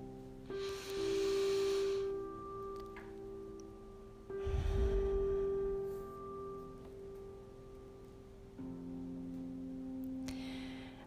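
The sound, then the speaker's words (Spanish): A slow, deep, conscious breath drawn in and let out as a guided breathing exercise, with airy breathy bursts and a softer breath at the end, over a steady humming musical drone. “Para empezar y para estar más presentes en este momento, te voy a pedir que hagamos juntos una respiración consciente, una respiración bien profunda, sintiendo este momento.”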